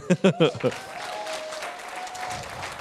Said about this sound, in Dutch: applaus